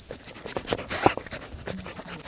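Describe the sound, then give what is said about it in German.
A hunting dog pants hard and fast while searching, a steady run of short, breathy huffs with a few louder snorting bursts in the middle, and no voices. “Ja, der muss richtig ackern, um das da rauszukriegen.”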